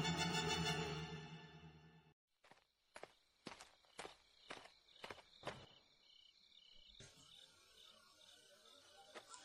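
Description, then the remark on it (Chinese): A short run of about seven sharp, evenly paced footsteps of a guard outside a door, each a crisp knock, after a loud burst of sound cuts off. A thin insect-like chirring hum and a rustling texture follow, with no talking. “这时候，门外突然手电光闪过，传来了脚步声。”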